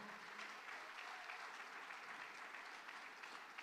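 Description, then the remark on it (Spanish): An audience claps hands loudly and steadily for the Lord, a dense, continuous wash of applause with no pauses, filling the whole moment with bright, crackling noise. “Vamos, dele palma fuerte al Señor.”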